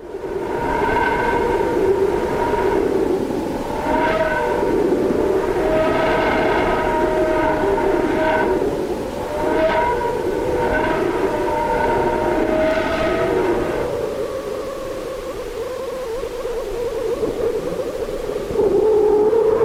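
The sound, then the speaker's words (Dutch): Sonified data of the Sun's pressure waves, recorded by the Parker Solar Probe: a loud, steady, wavering tonal drone with layered harmonics, broken by recurring brief whooshing swells, continuous for the whole stretch with no voices. “Er wordt klein gechilp, gepiep, orkaanachtig geschreeuw en geritsel dat door de Parker Solar Probe is geregistreerd.”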